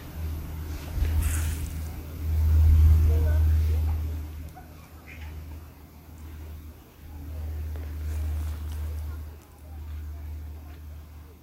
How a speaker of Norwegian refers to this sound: Ja, så dette er 54 sekunder med lyden av skogen. Eh, så med mye folk rundt, så vi får høre litt.